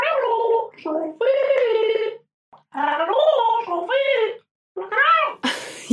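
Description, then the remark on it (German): Someone gargles water in several loud, bubbling, wavering bursts separated by short pauses, with the voice warbling through the liquid and a brief noisy splutter at the end. “Ich gurgle.”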